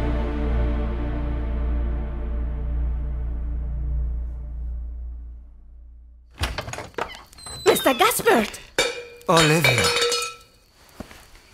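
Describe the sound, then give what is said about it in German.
A low, steady hum fades over several seconds, then dishes and cutlery clink and clatter in a kitchen as someone makes hot tea: bright, irregular bursts of ringing clinks and knocks, fairly loud, trailing off at the end. “Ich denke, ich werde mir in der Küche einen heißen Tee machen.”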